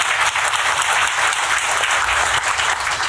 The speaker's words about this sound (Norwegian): Applaus for det, selvfølgelig.